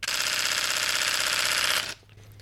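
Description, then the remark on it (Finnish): An EOS 1D X Mark III DSLR camera shutter fires in a fast continuous burst with its sound switched on, a dense rattling stream of crisp clicks for about two seconds before cutting off abruptly. “miltä se elektroninen sulin kuulostaa verrattuna tuollaiseen mekaaniseen sulkimeen”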